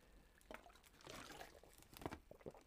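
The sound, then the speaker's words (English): Someone drinks water: a soft liquid slosh followed by a few quiet gulps and small clicks, with no talking. “I drink a lot of water, yeah. So that's the noise you're hearing in the background.”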